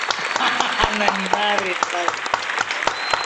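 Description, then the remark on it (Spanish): A crowd applauds steadily with dense, crackling claps throughout, while voices talk and call out over the clapping. “un, aplauso enormemente para todos ustedes”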